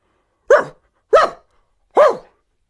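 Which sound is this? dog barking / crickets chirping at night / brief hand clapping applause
dog barking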